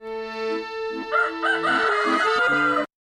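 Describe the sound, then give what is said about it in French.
A single long, loud rooster crow with a drawn-out rising and falling call that lasts about three seconds and then stops abruptly. No one speaks. “Il y a les coqs euh, qui chantent dès 6 heures du matin.”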